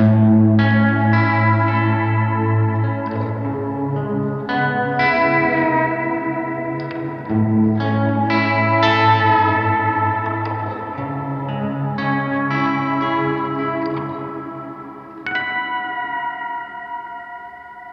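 Moody, ambient guitar played through modulation pedal effects, drenched in modulation and echo, with sustained chords swelling and shimmering over a steady low drone, played alone with no talking.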